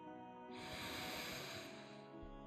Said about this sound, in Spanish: Ayúdate con movimientos de tu cuerpo. Percíbela ayúdate respirando profundamente